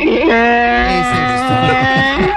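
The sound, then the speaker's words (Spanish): A donkey bray sound effect used to mark a quiz answer, one loud, drawn-out, strained call lasting about two seconds, with nothing else audible around it. “Y es que tenemos un burro o tenemos aplausos. El burrito lo tenemos por ahí, listo ya.”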